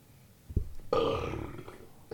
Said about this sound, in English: I was gonna burp.